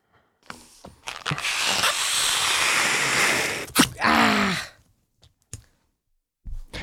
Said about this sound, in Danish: Hvad, hvad er det, I kan, siden I kan puste de her vanvittige hårde balloner?